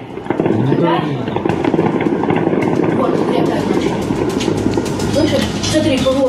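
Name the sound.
explosions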